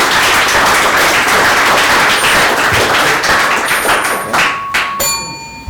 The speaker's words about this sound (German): Ja, Bühne frei oder wie man das im Theater sagt. Also ja, heißt doch mal die Leute hier willkommen. Applaus